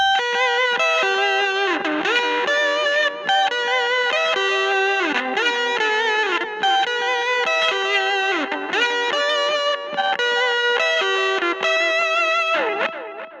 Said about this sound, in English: you can hear the LFO on the SDD 3000 creating some warble in there. That's the modulation I was talking about. There's an adjustable LFO.